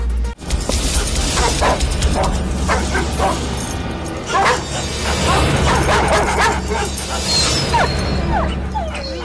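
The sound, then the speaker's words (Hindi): Several dogs bark and yip in short, overlapping bursts against a steady, noisy background. A voice can also be heard at times. “कुत्ते दो अपने पैरों पर बैठ गए हैं”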